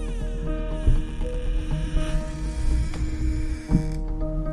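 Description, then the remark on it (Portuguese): The front door handle of a house is rattled and tried, with creaking metal clicks and a couple of sharper clunks, over a steady low hum. “se dirigiu até a casa e testou a porta de entrada.”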